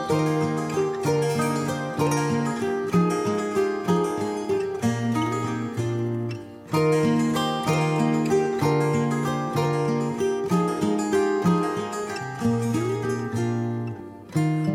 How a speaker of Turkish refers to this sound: stüdyodaki konuğumuzla sohbetimize başlamadan önce bir kısa bir müzik arası aralım, alalım.